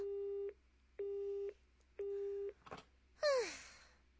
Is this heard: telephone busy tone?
yes